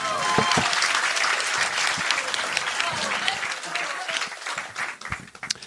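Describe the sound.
A burst of applause from a crowd, dense rapid clapping that stays steady and loud throughout, with a few cheers and voices mixed in before it thins slightly at the end.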